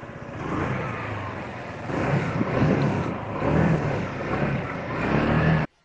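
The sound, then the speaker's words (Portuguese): The motorcycle of a food delivery rider in Porto Alegre revs, its throttle rising and falling in a few surges over a steady rumble before cutting off abruptly. No voices. “Trocar o campo pelas ruas, as chuteiras pela moto, as entregas de bola pelas entregas de comida.”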